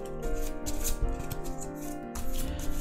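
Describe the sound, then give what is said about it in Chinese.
Waite tarot cards are shuffled in soft, rapid papery riffles and flicks, the rustling bursts running over steady background music with sustained tones, with no one speaking. “我们今天用的塔罗牌是这个韦特哈韦特牌，然后我们来洗牌。”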